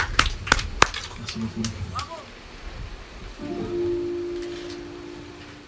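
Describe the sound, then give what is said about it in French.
An audience at a radio stage show claps to encourage a performer before his first song, in a dense, crackling wash with a few sharp, loud claps at the start; after a few seconds a steady low note begins to hum beneath the continuing applause. “devant le public qui va pouvoir un peu applaudir pour encourager”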